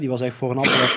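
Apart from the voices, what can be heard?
sneeze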